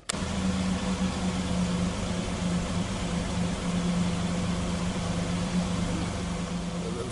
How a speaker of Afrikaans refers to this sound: Dis so dit klink as my taxi se engine aan is en dit loop glad. Is dit nie pragtig nie?